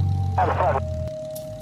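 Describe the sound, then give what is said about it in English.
A small Arrow propeller airplane engine drones steadily, a low throbbing hum with a faint whine, briefly overlapped by a muffled radio call about departing runway 29 with a left turn to the south, before the engine noise cuts off abruptly. The plane's slowest flying speed is about 65 miles per hour. “The slowest this airplane can fly is about 65 miles per hour”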